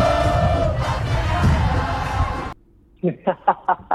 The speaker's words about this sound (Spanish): En el 2015 la cámpora cantaba esto, escuche, a ver si se escucha del otro lado.